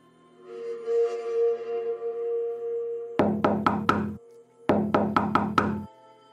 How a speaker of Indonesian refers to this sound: Pintu itu seperti gedor dengan keras, secara terus-menerus hingga terlihat bergetar.